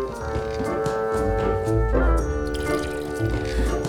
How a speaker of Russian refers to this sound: Можно я эту воду в раковину вылью?